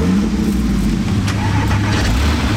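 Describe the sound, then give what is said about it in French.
A Porsche 991 GTS sports car engine rumbles loudly, a deep steady drone with a slight rising rev, continuous for the whole moment with no one talking over it. “C'est une 991 GTS.”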